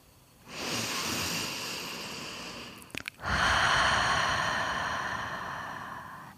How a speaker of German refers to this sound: Gefriere ein, lass die Augen geschlossen, tiefer Atem.